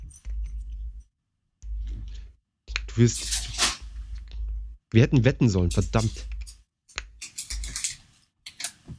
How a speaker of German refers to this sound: So, ich höre schon die, die, die, Tüte rascheln.